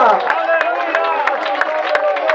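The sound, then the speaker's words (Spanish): The church audience of Iglesia de Aldea Bolaños stands and gives the Lord a loud applause at night, with steady, rhythmic claps over a wash of many voices calling out and babbling together, loud throughout. “Ponga la Biblia ahí a un lado, denle un fuerte aplauso al Señor.”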